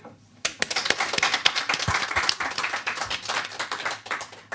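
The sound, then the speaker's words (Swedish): A round of audience applause for the technician of the radio projects Radio Total Normal and Radio Fri bursts in after a brief quiet start, many hands clapping in a dense, steady patter that stays fairly loud for several seconds. “En applåd.”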